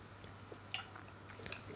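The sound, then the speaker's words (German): Two small, bright liquid plinks, about a second apart, as drops of tap water are added to a glass of Writers Tears whisky, quiet over a soft low hum. No one speaks. “Aber du hast recht, der braucht wahrscheinlich einfach ein bisschen, ein paar Tröpfchen Wasser.”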